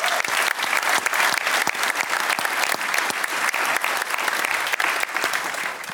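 Steady audience applause for the technical crew of Forum Groningen and other helpers fills all six seconds, a dense wash of many hands clapping at an even loudness, with no voices standing out.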